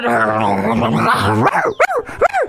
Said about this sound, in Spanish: Pues no sonriendo, estaba amenazado, se sentía amenazado, ladraba y acá trataba de defenderse de los mil perritos más que estaban ahí. Y entonces el perrito, eh, todo asustado, todo.